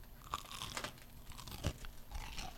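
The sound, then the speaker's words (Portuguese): Crunching as a crispy fried codfish ball is bitten and chewed, a few sharp, crackly bites with one louder crunch partway through, and no talking. “vou morder o bolinho de país só pra você ouvir o barulhinho crocante”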